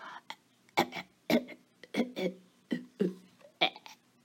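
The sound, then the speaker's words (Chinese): A voice imitates a little hippo coughing after swallowing a parcel, with a run of about eight short, gruff, throaty bursts in an uneven rhythm, fairly loud and wordless. “小河马开始咳嗽”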